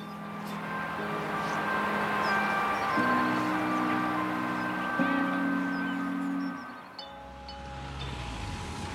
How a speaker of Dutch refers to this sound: Nou ja, we horen eh, sirenes op de achtergrond.